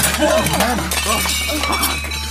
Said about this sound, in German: Sag mal, Entschuldigung, ist diese Tussi da gerade ernsthaft weggerannt, nachdem sie ein Tablett mit vier Tellern einfach hat fallen lassen?